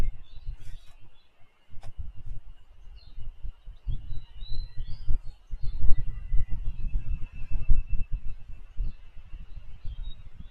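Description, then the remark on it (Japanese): Cicadas buzz in a steady, unbroken high drone throughout, layered over a rumbling low background of wind or outdoor noise with a few faint chirps. “セミ鳴いてますよね。”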